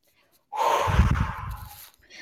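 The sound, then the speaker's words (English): A voice imitates wind blowing tumbleweeds with one long, breathy whooshing exhale, fairly loud, rising suddenly after a short silence and slowly fading. “that's the sound of just tumbleweeds.”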